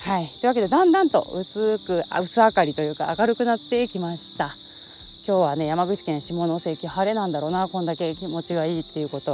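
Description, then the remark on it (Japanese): Bell crickets chirp in a steady, continuous high trill throughout, in the background while a man talks over them in the foreground during a walk on a humid day, September 12. “相変わらずスズムシの鳴き声をあの背景にですね BGM がいい感じで皆さんにお届けできたかなと思います”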